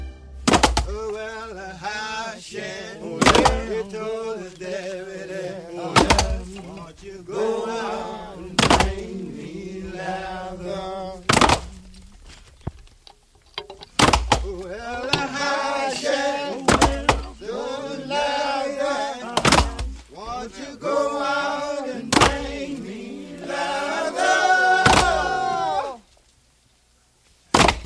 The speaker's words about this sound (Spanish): una canción del soundtrack de Oh Brother, Where Art Thou, que es de un grupo de hombres encadenados picando piedra bajo el sol